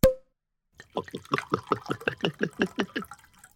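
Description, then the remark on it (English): A quick pop, then a brief pause and a steady run of about a dozen rhythmic glugs as carbonated moonshine pours from a bottle, fairly loud, with no voices. “What do you say we celebrate with this finely aged bottle of carbonated moonshine?”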